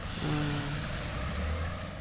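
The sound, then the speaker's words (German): A small boat starting up, its engine humming steadily, a low droning motor with a faint rising pitch, over constant outdoor background noise and no talking. “Ja, hier startet gerade ein kleines Boot.”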